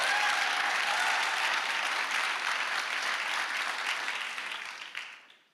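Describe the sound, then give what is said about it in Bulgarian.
Sustained applause from a large audience, a dense steady wash of clapping that holds for several seconds before tapering off and fading out at the end. “Аз щях да ръкопляскам, ако бях от другата страна.”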